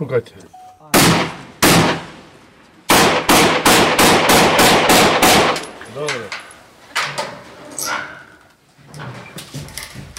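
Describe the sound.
A rapid volley of sharp, loud gunshots rings out outdoors as men fire at midnight, several in quick succession, followed by scattered voices and background commotion as the shooting fades.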